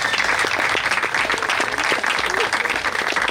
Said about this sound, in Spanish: Démosle a ellos un gran aplauso, son los verdaderos protagonistas.